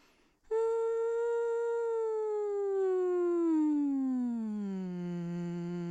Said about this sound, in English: One of the best ways I get there on a daily basis is by doing this very easy, simple vocal scan where I imagine that my voice is at the top of my head, and then I go all the way down until I feel it in my chest, and it sounds like this.